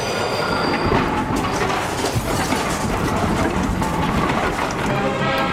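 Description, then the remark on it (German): An express train from Chur to St. Moritz rumbles steadily down the valley past farmers in a meadow at half past two, its wheels clattering in a continuous dense roar with faint metallic squeals riding on top, no voices present. “Und wie immer um die Zeit ist der Schnellzug von Chur auf St. Moritz das Tal runtergefahren, vorbei an den Bauern auf der Wiese.”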